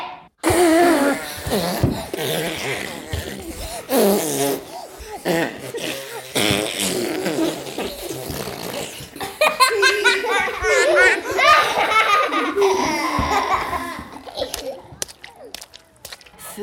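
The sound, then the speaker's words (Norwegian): Several voices blow raspberry-like fart imitations together in a noisy chorus, overlapping and sputtering for many seconds, mixed with bursts of laughter and giggling. “Men la oss lage et skikkelig prompekor.”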